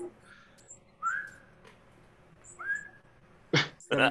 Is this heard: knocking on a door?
no